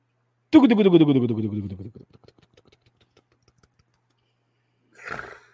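A roulette wheel spins for a ticket prize draw with a loud whirring rattle that drops in pitch as it slows, trailing off into a few sparse ticks before a brief noisy burst at the end.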